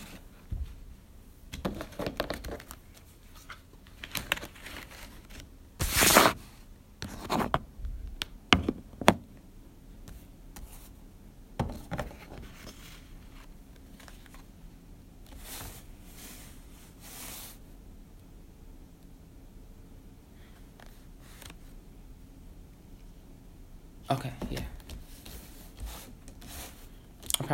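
Dry rustling and crisp riffling of a deck of cards being shuffled, in short bursts with sharp taps and pauses between them, fairly quiet, with no voices.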